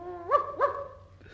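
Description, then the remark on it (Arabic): A dog lets out two quick barks about a quarter-second apart, preceded by a short whine, with a faint low hum in the background. “أقدر أخد أخويا معايا اللي هو الكلب ده”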